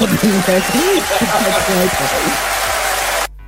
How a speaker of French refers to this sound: Ah, c'était des applaudissements du tonnerre.